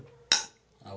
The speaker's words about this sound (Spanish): Brindis. Salud.